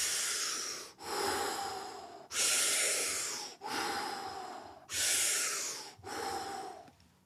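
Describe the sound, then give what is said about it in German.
Deep, forceful circular breathing, each breath fully filling the lungs, with inhales and exhales running into each other in a continuous rhythm, about six strong breaths with no pause between them. “Und wenn ich dann dieses zirkuläre Atmen mache”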